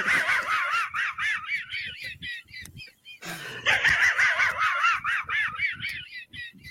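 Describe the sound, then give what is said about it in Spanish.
A cartoon dog's wheezing, snickering laugh from a Hanna-Barbera cartoon: rapid raspy pulses in two long bursts separated by a brief pause, loud with no talking over it. “La risa de risita, ¿no? Del perro.”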